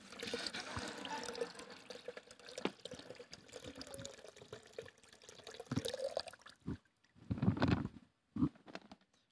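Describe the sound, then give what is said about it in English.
Water that has rocks in it pours steadily from a container, the rocks left behind, with a splashing trickle for several seconds, then breaks into a few short, louder gushes and splashes as the last of it runs out. “But watch what happens when I pour this water that has rocks in it, but I leave the rocks behind.”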